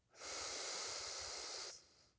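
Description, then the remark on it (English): A single long, steady deep inhalation during a guided breathing exercise, clearly audible, a breathy airy rush lasting about a second and a half before stopping abruptly, with no talking. “Legs uncrossed, arms uncrossed, Gently closing our eyes, taking in a deep breath, breathing in,”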